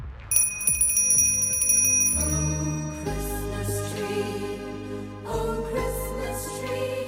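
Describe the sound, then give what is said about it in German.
Bright, high tinkling of small bells rings out at the start, then continues over a soft musical backing with deep bass notes and sustained chords. No one speaks. “Richtig. Glöckchen.”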